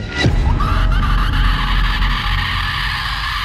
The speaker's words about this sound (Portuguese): A porta se fechou com violência.